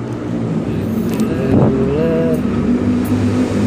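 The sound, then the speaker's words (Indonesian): A loud, throaty motorcycle exhaust rumbles, a steady engine drone that swells briefly midway as the bike passes. “Ada iklan lewat tuh motor.”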